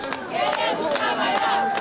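A crowd of protesting workers in Manaus, Amazonas, shouts slogans together while marching through the streets with placards against the state government's decree restricting commerce: a dense wall of raised voices with rhythmic chanted bursts recurring every half second or so, loud and sustained throughout.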